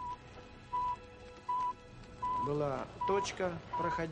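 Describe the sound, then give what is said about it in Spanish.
The radio signal of the world's first Sputnik satellite beeps in short, evenly spaced tones, about six in a steady rhythm, while a voice starts talking over the second half. “El objetivo principal era escuchar el famoso bip bip.”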